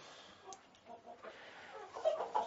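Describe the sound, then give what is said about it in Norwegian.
Several hens cluck in short, scattered bursts, moderately loud, with a few sharper squawks toward the end over a soft background hiss. “De har funnet ut at de heller vil være inne hos hønsene, så de har flydd over her til.”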